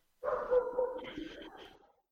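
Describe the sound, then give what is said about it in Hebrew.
A dog barks from the street, one drawn-out, whining call lasting under two seconds, fairly faint, with no voices around it. “אה, אז טוב, אוקיי, יש, איזה כלב נובח.”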